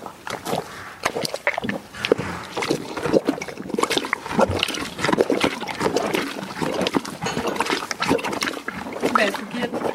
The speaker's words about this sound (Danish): Det, man hørte til sidst her, det var en hest.